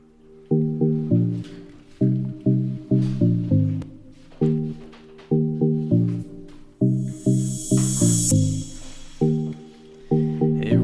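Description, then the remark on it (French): A short, bouncy jingle of repeated plucky tonal notes in quick rhythmic phrases, loud and upfront, with a brief bright whooshing swell near the end and no talking. “Je vais mettre un petit jingle, je vais aller chercher mes fiches et vous allez voir un exercice que vous n'avez jamais fait ici.”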